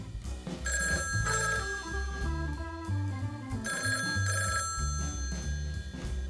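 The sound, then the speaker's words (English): A telephone rings twice, each bright, trilling burst lasting about a second with a pause between, clear over steady background music with a bouncing bass line, a call coming in to the Heavenly Hearing Aids customer service team. “In fact, let's look at a few calls that came in recently.”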